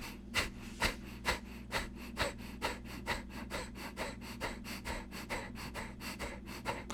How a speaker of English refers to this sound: kapalabhati means um, to force the breath out of the lungs by a contraction of the muscle of the diaphragm, and then by relaxation of the muscle of the diaphragm, allow the breath back in. And that sounds like.